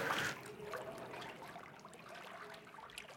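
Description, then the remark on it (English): Knee-deep water in an underground chamber beneath a hippodrome swishes and trickles quietly, starting with a brief louder splash before settling into a steady, low wet churning, with no voices. “The question is how deep is that water? It's maybe knee deep.”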